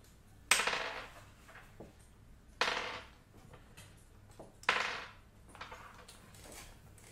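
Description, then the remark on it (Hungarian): Dice are rolled three times, a few seconds apart, each throw a sharp clatter that rattles briefly and settles with a few small clicks. Quiet, with no talking. “Akkor én dobom.”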